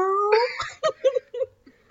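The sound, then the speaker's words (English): A single drawn-out, high-pitched cat meow rises and then fades, followed by a few short, breathy chirps or little laughs, all clear. “the cat's in the background lightly. hyping us up. Meow.”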